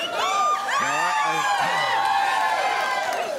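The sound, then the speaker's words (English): A crowd cheers and yells continuously, many overlapping voices with rising whoops and shouts, loud and sustained throughout. “happy crowd. It's, these people are crazy.”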